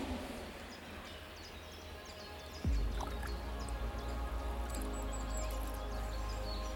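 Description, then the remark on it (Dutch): Water trickles softly and steadily through a marshy channel (slenk) in the Hollandse Hout, with faint bird chirps and a low rumble swelling in partway through. “Deze aflevering sluiten we hier ook af bij de slenk in het Hollandse Hout.”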